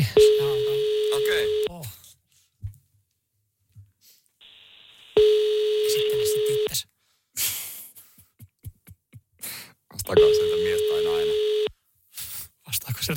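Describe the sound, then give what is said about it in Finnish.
A phone's ringback tone on an outgoing call to a barber and hair salon: three steady, clear beeps about a second and a half each, separated by pauses of several seconds with faint breathing and small noises between. “lähdetään soittaa. Koetaan saada tuosta tota, parturikampaamosta joku kiinni.”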